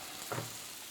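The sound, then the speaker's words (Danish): Steady, hissing sizzle of herring frying in a hot pan of melted butter and rapeseed oil, with a brief louder crackle partway through and no talking. “Og vi kan jo sige, at imens at sildene steger, så står vi og kigger ned på en pande med nogle bløde løg, ja.”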